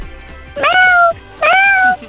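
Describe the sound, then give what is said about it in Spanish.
A child's voice imitates a small cat with two high, drawn-out meows in quick succession, each rising then sliding down, fairly loud, with no other talking. “Ahora de un gato más chiquito.”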